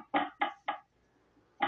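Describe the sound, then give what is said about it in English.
Firm knocks on a wall over a beam, three in quick succession, then a short pause and one more, each sounding dull and solid. “But if it's a beam, it'll sound like this.”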